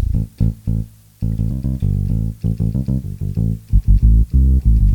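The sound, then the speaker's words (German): Deep keyboard bass tones play a run of notes, some short and plucked, others held, loud with brief gaps between phrases and no talking. “Jetzt gehen die Bässe los.”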